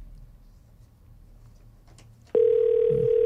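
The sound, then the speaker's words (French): After a couple of seconds of faint background rumble, a loud, steady phone dial tone switches on abruptly and holds unbroken to the end, with no one speaking. “a juste pas de l'air sur son cellulaire ce soir.”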